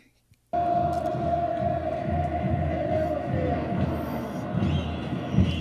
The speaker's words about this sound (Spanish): Nos despedimos con el Vamos América que así se escucha en el estadio.